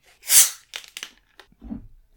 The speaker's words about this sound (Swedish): Jag ska eh. hälla upp lite cola.